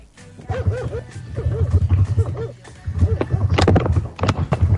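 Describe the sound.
A person imitates a dog, letting out a rapid series of voiced barks and yips, fairly loud, with arched whiny tones between them over a low steady rumble.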